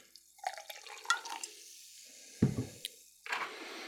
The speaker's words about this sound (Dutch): Dat is bijzonder, ik ga hem eens openen. En ik schenk er een bodempje van in.